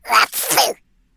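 A single soft sneeze, a quick two-part burst lasting under a second, heard alone in a shop, followed by silence.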